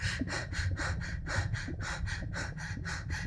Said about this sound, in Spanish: Y en esa tranquilidad vamos a empezar a hacer unas respiraciones cortas y rápidas y vamos a empezar a hacer esas respiraciones por la boca, tratando de que sean por la boca.